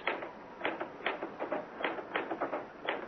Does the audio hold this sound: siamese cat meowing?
no